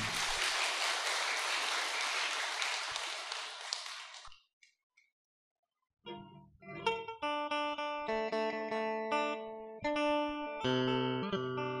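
A crowd at a Buddhist gathering claps steadily for about four seconds as a singer is invited up to perform a ca cổ song, a dense burst of applause that fades out, followed by a short silence before instrumental music with sustained tones begins.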